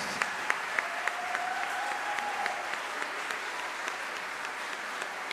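Sustained applause from a large audience at a festival concert fills a hall, dense overlapping clapping holding steady for several seconds, with a faint whistle-like tone briefly rising above it early on.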